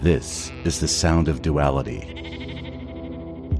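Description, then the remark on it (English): A person speaks briefly, then a sheep lets out a long, wavering bleat that holds steady for over a second at moderate volume before cutting off. “It's also the sound of sheep and bliss, wandering this universe, and the concept of Sonder as you play a lead role created by these two”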